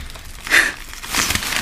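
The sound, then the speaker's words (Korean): A black plastic bag lying in a drawer rustles and crinkles in two short bursts, a sharper crackle followed by a longer, softer crumpling as an already-opened snack is pulled out. No one speaks. “진즉 뜯겨서 기름 냄새를 뿜고 있었을 과자가 검은 비닐봉지 속에서 모습을 드러냈다.”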